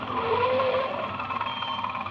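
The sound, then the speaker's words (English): Thompson's patrol tractor roars over the sand dunes at 10:05, its engine a steady, loud, continuous rumbling drone with a slight whine, without pausing. “At exactly 10.05, the roar of Thompson's patrol tractor came over the dunes.”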